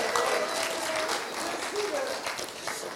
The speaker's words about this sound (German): Mal kurz, gibt es hier irgendwen, der gerade schwanger ist? Okay, ich, also okay, hier, Applaus hier für wunderbar.